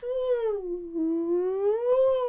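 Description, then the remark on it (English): A person imitates a rotating tornado drill siren with one sustained, fairly loud vocal wail that dips in pitch and then swells back up, heard alone over about two seconds. “I remember it was at nine o'clock, and you just hear because it was a siren that turned.”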